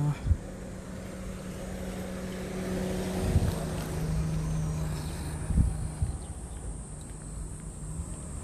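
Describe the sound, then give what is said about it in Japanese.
Steady engine rumble from many idling cars gathered in a town on a Saturday in August, a low droning hum with a couple of brief bumps, set against broad outdoor street noise. “今日ん土曜日8月まあ部活帰りかなんかのお迎えでしょうか車がたくさんあ”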